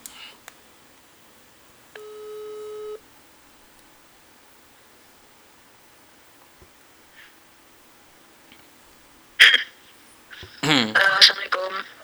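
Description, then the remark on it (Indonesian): A single steady electronic ringback tone sounds for about a second from an outgoing phone call, followed by quiet hiss, then a crackly burst and a voice coming through the line. “oke okay, stay tune terus dan gue bakal telepon dia sekarang”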